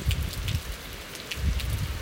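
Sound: heavy rain falling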